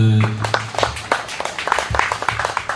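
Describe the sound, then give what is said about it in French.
An audience claps steadily for a few seconds, a dense, irregular patter of many hands, after a brief voice fades out at the start. “Nous applaudissons à nouveau notre.”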